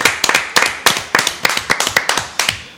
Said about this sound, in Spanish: Bueno, un aplauso, Un aplauso. Grande.